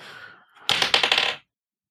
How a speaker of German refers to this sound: Ich würfel für Jens. Jens hat die 8, traditionellerweise eine einstellige Zahl beim äh, 20-seitigen Würfel.